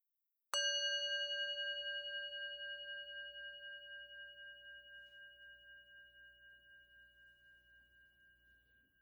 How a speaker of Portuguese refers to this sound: Agora, ao toque do sino, vamos começar.